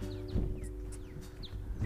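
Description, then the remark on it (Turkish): Short, high chirps and quick descending whistles from birds near a pond, scattered over a couple of seconds against a steady low outdoor rumble, fairly faint. “Kuş sesleri geliyor bize.”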